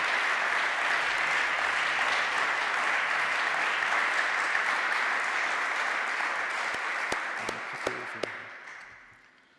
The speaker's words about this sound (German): Applaus